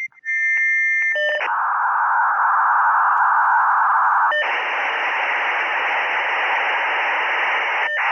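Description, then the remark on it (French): A dial-up modem handshake as an external modem on a telephone line connects: steady carrier tones and beeps, then harsh hissing bursts of static-like noise that shift abruptly in character, loud, with no voices. “reproduit le bruit du modem qui faisait cri cri cri”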